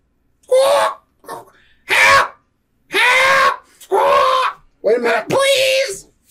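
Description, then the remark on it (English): A voice imitates muffled squawking and cries: six strained, wavering vocal bursts with gaps between them, fairly loud, sounding like distressed calls for help. “… all here in the distance uh, muffled squawking and cries for help”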